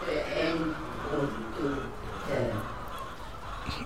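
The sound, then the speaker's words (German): A flock of hybrid chickens of different origins, laying hybrids and broiler hybrids, clucks and murmurs continuously, their overlapping calls forming a busy, steady chatter with occasional louder squawks. “Hybridhühner unterschiedlicher Herkunft. Da die Legehybride und dort die Masthybride.”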